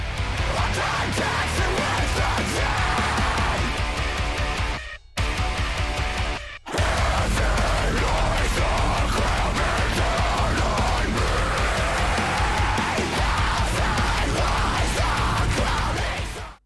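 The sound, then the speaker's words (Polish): A heavy, distorted metal song with harsh screamed vocals and no clean singing, loud and dense from start to finish, broken by two brief sudden cutouts partway through before the full wall of sound returns. “Co ciekawe, to jest ich chyba najcięższa piosenka, jaką wydali w ogóle w karierze całej no właśnie, bo strasznie, no tak, dosłownie, bo to jest, tam chyba, no tam nie ma śpiewania. Nie, tam wszystko to jest screamy.”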